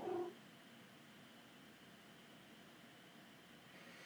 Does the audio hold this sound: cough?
no